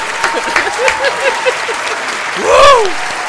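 A crowd claps steadily in sustained applause, with scattered voices calling out over it and a louder cheering shout rising near the end.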